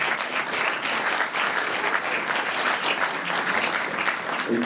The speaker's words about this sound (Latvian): Aplausos.